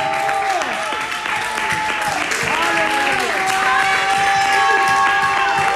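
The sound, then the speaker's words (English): A crowd claps their hands steadily and loudly while many voices shout and whoop together in a shout of victory, creating a sustained, dense roar of applause and cheering with rising and falling vocal cries throughout. “Before you sit down, just clap your hands and give them a shout of victory.”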